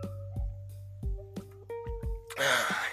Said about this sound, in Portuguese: pausa pra água.